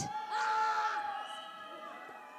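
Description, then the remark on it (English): An audience, a crowd of voices with children among them, makes a 'scared' sound effect together: a sustained, wavering frightened wail that swells loudly for a moment and then tapers off over a couple of seconds. “Can we have your sound effects again for scared?”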